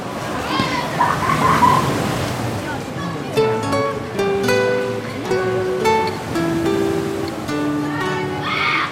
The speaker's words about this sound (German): Kinder klettern die schroffe, nahezu senkrecht aufragende Klippe hinauf und springen kreischend ins Wasser.